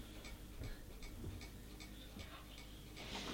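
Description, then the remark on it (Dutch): A small German clock ticks steadily in a home, about two crisp ticks per second, quiet, over a low hum with no voices. “Mag die even stilstaan? Oh nee, weet je, zo staat hij ook stil en dan loopt hij nog Dat is een Duitse klok.”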